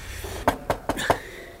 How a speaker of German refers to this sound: Ich klopf mal.